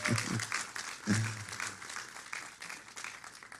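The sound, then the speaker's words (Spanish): A large crowd claps steadily for the Lord for several seconds, a dense, continuous patter of many hands, with a few brief voices calling out near the start. “Un fuerte aplauso para el Señor, pero díselo fuerte, fuerte, fuerte.”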